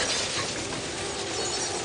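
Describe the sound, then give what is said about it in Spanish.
Glass panes shatter in a loud burst as an explosion shakes a house, with a dense cascade of crashing, tinkling shards that keeps going for about two seconds. No one speaks. “Los cristales saltan hecho añicos.”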